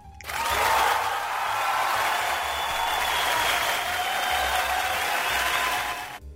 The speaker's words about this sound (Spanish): Estoy esperando los aplausos aún. Sí, sí, están sonando. Ya va, porque es que le tengo que compartir el audio, Ah, muy bien, muy bien. Ah, gracias, gracias. Entonces, cuando yo le comparto el audio, usted puede escuchar los aplausos.